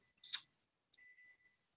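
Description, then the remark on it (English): A brief rustling click, then an electronic device gives a single steady high-pitched beep lasting about half a second, faint and alone with no talking. “my potato's beeping.”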